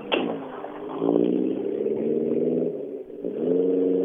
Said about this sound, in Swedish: För det här måste ju varit en Grupp F-bilen som passerar mig nu.